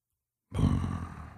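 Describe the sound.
A person's voice imitates the low, gurgling rumble of a herd that was around their camp, starting abruptly after a short silence and holding as a rough, rumbling drone for nearly a second, moderately loud.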